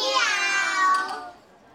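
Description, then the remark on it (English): A person imitates a cat's meow with one drawn-out, tonal call that slides downward in pitch and fades at the end, heard clearly on its own. “How many of you like cats? Let me hear you say meow.”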